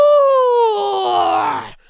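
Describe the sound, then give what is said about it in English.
A person voicing the wolf in a told story imitates a wolf howl, "A woo!", with one loud, drawn-out vocal cry that starts as a clear tone, slides downward in pitch, and turns rough and strained before cutting off. “cried the wolf, and he began to howl at the girls.”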